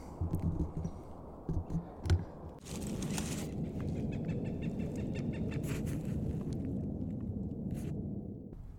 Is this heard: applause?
no